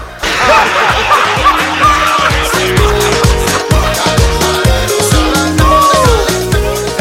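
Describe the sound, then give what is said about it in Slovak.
Tires squeal as cars brake hard, with short rising and falling screeches standing out over a loud, dense background that carries a steady, rhythmic low pulse. “slepec prechádza na červenú, auta brzdia, kolesa pískajú”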